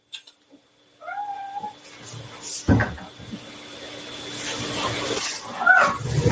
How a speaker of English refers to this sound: Folks, I think, oh, the cat is biting. You guys want to see my cat? Come here.